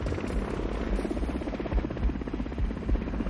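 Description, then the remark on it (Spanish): A helicopter in the Vietnam War flies steadily overhead, its rotor beating in a rapid, even chop over a deep rumbling drone. The level stays constant throughout, with no voices. “Hemos llevado a Charlie en el helicóptero.”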